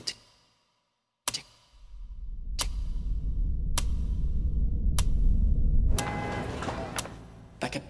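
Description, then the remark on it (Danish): Sharp, evenly spaced ticks, roughly one per second, like a time bomb counting down, sounding over a low rumbling drone. No one speaks. “Lately, I've been hearing this sound like a.”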